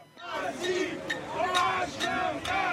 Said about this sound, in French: À chaque déplacement d'un membre du gouvernement, le même accueil. Des opposants à la réforme des retraites qui font autant de bruit que possible dans un concert de casseroles